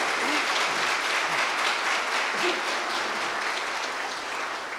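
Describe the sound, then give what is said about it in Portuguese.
Sustained audience applause for Jesus, a dense crackle of many hands clapping at a steady, fairly loud level for several seconds with no voices standing out. “Vamos aplaudir a Jesus, pessoal.”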